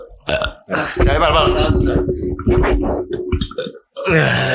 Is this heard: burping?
yes